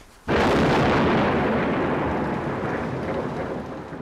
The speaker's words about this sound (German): wildes Gewitter zieht er auf, ein krachender Donner ist zu hören. manchmal, wenn man halt im Auto sitzt oder so, dann zucke ich man immer so ein bisschen zusammen, wenn es donner, weil das halt schon ziemlich stark.